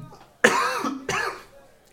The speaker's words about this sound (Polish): Ja przepraszam za moje kaszlenie, ale aktualnie jestem błogosławiony przez dziadka Nurgla i dlatego będę heretykiem dzisiaj.